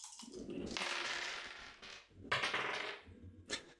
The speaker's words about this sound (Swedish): Så då får du minus ett på slaget och får bara slå med en tärning.